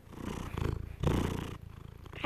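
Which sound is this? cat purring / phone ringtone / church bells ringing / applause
cat purring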